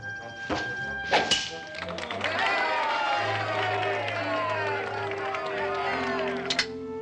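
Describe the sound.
Arrows whip through the air and strike a target with sharp thuds, a couple early on and one more near the end, shot in a bowmanship contest of splitting arrows, over a busy background of voices and tonal sounds.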